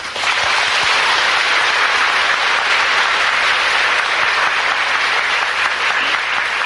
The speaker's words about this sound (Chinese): 以前曾经请过净空法师来上过课，这净空法师我们要跟他鼓掌。